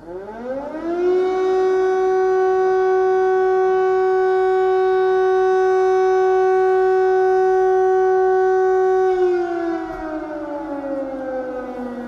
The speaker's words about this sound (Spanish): suenan las sirenas en la noche de Krivirij. Y que suenen solo puede querer decir una cosa. Está la muerte dando vueltas en el cielo y hay una posibilidad de que esa muerte sea la tuya.